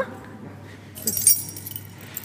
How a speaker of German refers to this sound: holt den großen Schlüsselbund hervor und öffnet jetzt ein Terrarium.